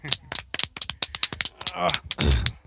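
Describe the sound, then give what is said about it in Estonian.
A quick, steady run of sharp, crisp one-handed claps of applause, about a dozen loud smacks in a row, with some voice sounds mixed in toward the end. “teeme ühe käe aplausi ka siis.”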